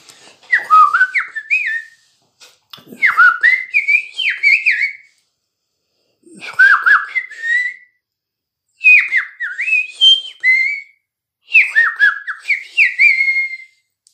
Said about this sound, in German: Und äh, ich gebe euch äh, auch äh, mal einen kleinen Vogelgesang mit auf den Weg.